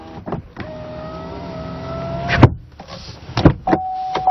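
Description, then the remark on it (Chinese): The electric front window of an ATS L car hums upward for about two seconds as it is fully raised, then the uncushioned glass hits the steel door frame with a hard thud. More sharp knocks follow before the window motor whines again. “就好像它的玻璃是没有任何缓冲的，直接撞在了这个门框的钢板上，咚咚的，呃，让人耳朵听着都有一点疼的感觉。”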